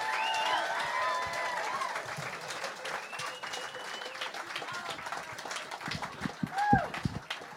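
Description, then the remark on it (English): Sustained audience applause for host Jessica Kirson, a dense wash of many hands clapping with scattered cheers and whistles rising over it, steady and fairly loud throughout. “Jessica Kirson, everybody, let her hear it.”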